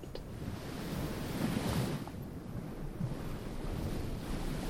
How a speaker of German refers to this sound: Dann stell dir vor, du gehst bei Sonnenuntergang barfuß einen malerischen Sandstrand am Meer entlang. Deine Füße graben sich bei jedem Schritt in den weichen, warmen Sand. Das Wasser umspült sie dabei mit jeder kleinen Welle ganz sanft.